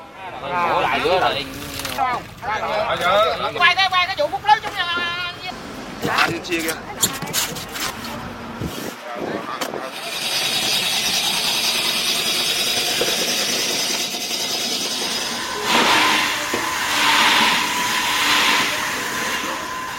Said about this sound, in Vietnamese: Cảng cá những ngày này cũng trở nên huyên náo bởi rất nhiều âm thanh.